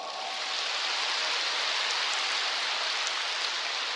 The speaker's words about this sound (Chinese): 你们要学会鼓掌。